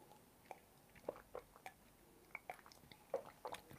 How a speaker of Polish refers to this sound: Potem będą trzy łyki wody z miedzianego kubka. Proszę bardzo.